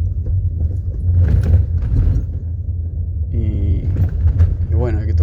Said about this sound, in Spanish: Y, bueno, de, eso surgió la necesidad de charlar en, esta, en este camino por Buenos Aires en auto.